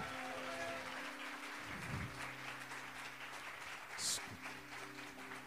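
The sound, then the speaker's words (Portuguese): An audience applauds steadily throughout, giving glory to God, a dense wash of many hands clapping, with sustained keyboard chords held underneath and a few voices calling out. “Dê um aplauso aí, dá um glória a Deus aí, irmão.”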